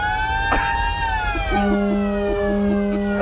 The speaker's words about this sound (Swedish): Som ni hör och ser så är det en enorm feststämning. Det är massor utav folk och det är otroligt många bilar.